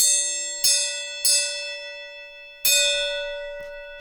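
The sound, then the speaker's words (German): A gong is struck as a segment jingle three times in an uneven rhythm, each hit ringing out with a bright, sustained metallic tone, followed by a softer fourth tap near the end. Nobody speaks. “Dann, äh, Hau mal auf den Gong.”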